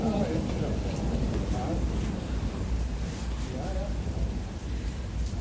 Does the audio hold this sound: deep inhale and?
no